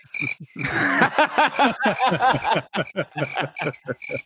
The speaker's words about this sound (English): Crickets.